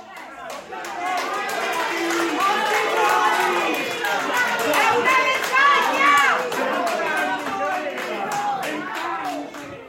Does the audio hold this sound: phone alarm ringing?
no